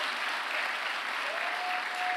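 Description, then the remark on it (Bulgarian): A crowd applauds steadily, a dense wash of clapping holding the same level throughout, with a faint thin tone rising in toward the end. “Айде хора, ако ръкопляскате, ръкопляскате, като че вярвате, че нещо се случва на това място.”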